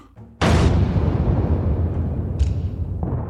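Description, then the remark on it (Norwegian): Naval cannons of the Swedish fleet fire on Danish-Norwegian ships in a heavy booming volley, one loud blast followed by rolling rumble and two more shots a couple of seconds apart, powerful with no voices. “Den svenske flåten begynte å skyte på de dansk-norske skipene.”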